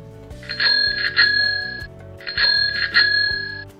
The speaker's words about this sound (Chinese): 这个是脚踏车的声音。